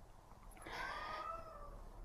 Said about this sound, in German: hörst du die Katze?